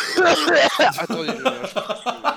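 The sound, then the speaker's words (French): A harsh, phlegmy cough and throat clearing bursts out loudly, then trails off into a few short, rhythmic voiced grunts that sound almost like a chuckle. “On aurait dit un vieux papier alcoolique là, genre euh, avec un gros glaire, c'était immonde.”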